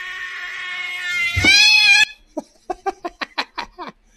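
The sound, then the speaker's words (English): A cat lets out a long, drawn-out yowl that swells and breaks, then a rapid burst of short, choppy cries in quick succession without pausing for breath, loud. “Yeah, cats cats forgetting to take a breath. That's that's what its problem is.”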